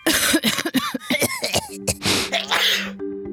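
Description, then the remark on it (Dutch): A rapid run of harsh coughs and sneezes, several short bursts followed by two louder, breathy sneezes near the end, with a faint steady hum underneath. “Gezondheid.”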